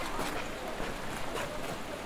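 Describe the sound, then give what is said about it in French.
Steady, dense wash of water and motorboat noise from the motorized fleet of small V-hulled fishing boats, built in Colombia, on the Grande Rivière des Aboucos, which serves as a fishing port at the end of the Grande Rue. Continuous, with no distinct engine revving or pauses across the short stretch. “Donc voici la flotte motorisée. Nous avons un superbe plan d'eau ici, c'est la rivière des et la grande rivière des Aboucos.”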